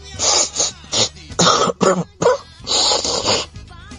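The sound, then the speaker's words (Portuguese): A run of wet sniffles and snorty breaths from a man, about eight short noisy bursts in an uneven rhythm, loud with no talking. “Com tamanha sinceridade é um de um irmão que funga, né?”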